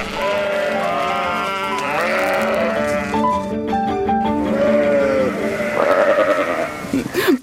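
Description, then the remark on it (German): Several sheep bleat loudly and almost continuously while being shorn, their wavering, nasal cries overlapping one another, with a brief rattling, buzzing noise partway through. “Die Tiere finden das Scheren selber unangenehm. Das heißt, sie sind da manchmal unruhig und versuchen wegzukommen.”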